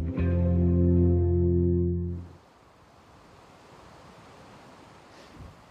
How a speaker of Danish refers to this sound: Den lyd, du kan høre, det er blæsten i træerne i den skov, jeg er ude i på Djursland.